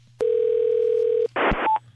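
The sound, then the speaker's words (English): A steady telephone dial tone hums for about a second, then cuts to a brief burst of noisy static and a short beep, as a call is placed to Twitter's human resources phone number and connects. “We called the Twitter okay. human resources.”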